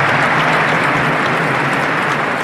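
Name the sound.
stadium crowd applause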